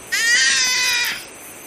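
A roe deer lets out one loud, high, piercing cry that holds for about a second with a rich, whining tone, then cuts off. No one speaks.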